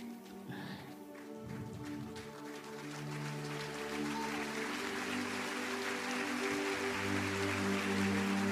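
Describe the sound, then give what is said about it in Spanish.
An audience breaks into applause for the Lord, a steady wash of many clapping hands that swells and grows denser over sustained, humming keyboard chords. “Si crees que Dios habló, dale ese aplauso al Señor de señores, al Rey de Reyes.”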